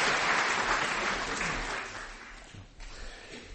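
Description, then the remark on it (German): Applause from an audience, a dense crackle of many clapping hands that holds steady, then gradually thins and fades out near the end, with a few last scattered claps. “Der Applaus war gerade auch für euch, genau.”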